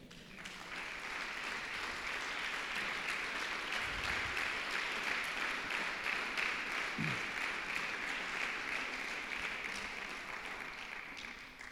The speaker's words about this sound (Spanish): Gracias Señor. Deme un amén y un aplauso bien fuerte.